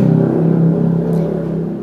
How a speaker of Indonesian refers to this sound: tuh kan lewat motornya ya iyalah le motor lewat